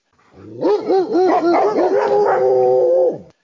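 A poodle barks and howls along to a song, a quick run of rising, yelping barks that stretch into a long, wavering howl, loud, with no one talking.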